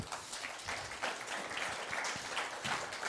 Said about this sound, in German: Lass uns einen herzlichen Applaus geben